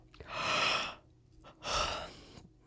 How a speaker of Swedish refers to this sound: då står det att kvinnor ska gäspa stort. Funkar Innan viktiga samtal, för då sänks rösten automatiskt. Prova igen nu.